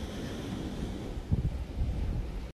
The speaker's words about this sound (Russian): А интро к данному выпуску я записываю «Встречая рассвет» на берегу почти Индийского океана и передаю вам звуки моря.